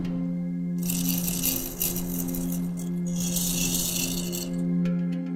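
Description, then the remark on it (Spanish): A hollow clay sculpture holding small clay pellets is shaken steadily as a rattle for several seconds, producing a dense, gritty swishing rasp with a low steady hum underneath, continuous before stopping near the end. “Otra característica muy especial es que al ser una escultura hueca, se introdujo pequeñas bolitas de barro o escrupulillos que con el movimiento de la pieza produce un particular sonido.”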